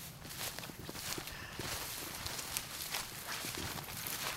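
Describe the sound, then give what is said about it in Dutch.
Footsteps squelch steadily through a soggy peat bog, on floating ground of undigested plant remains topped with peat moss over water, a continuous wet trudging with soft splashy crunches and rustling, no voices, as a forest ranger and a companion walk. “Ik loop daar met hem een drassig, moerasachtig stukje. En ik heb inmiddels natte voeten”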